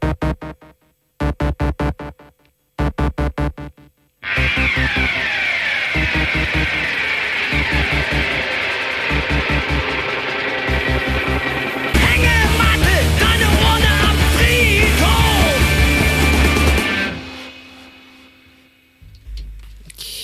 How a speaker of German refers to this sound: ich finde den Titel so schön von äh, der …, von ihrem Album …. Das Lied ….